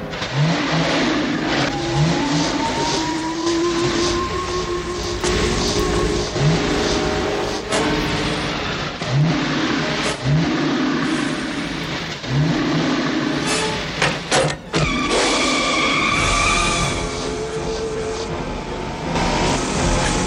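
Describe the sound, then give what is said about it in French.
A 1946 Ford car's engine revs and accelerates loudly and continuously for about twenty seconds, its pitch climbing in repeated surges, with a few sharp clunks and rattles mixed in. “si un skate roule aussi vite qu'une Ford 1946.”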